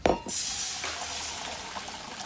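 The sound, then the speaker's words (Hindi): Chana dal water is poured into a hot tempering of turmeric, red chilli powder and curry leaves, with the gas turned off, giving a sudden sharp hiss and sizzle that settles into a steady bubbling crackle with no talking. “तो गैस को ऑफ करके इसमें डालिए आधा चम्मच हल्दी थोड़ी सी लाल मिर्च पाउडर और कड़ी पत्ता और अच्छे से इसे मिक्स कर लीजिए अब इस तड़के में मिलाते हैं वो चना दाल का पानी”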